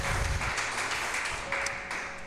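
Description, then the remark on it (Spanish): A crowd applauds for God steadily for a couple of seconds, a dense, continuous wash of many hands clapping at once with no voices standing out. “¿Qué tal si le dan un aplauso a Dios?”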